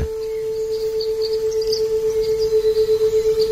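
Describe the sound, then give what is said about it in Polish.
A steady, unwavering pure test tone hums continuously at a moderate pitch, with faint bird chirps twittering in the distance and a slight pulsing wobble toward the end. “A to jest 432 Hz.”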